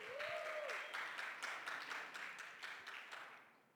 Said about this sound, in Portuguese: Gente, as palmas aí, galera.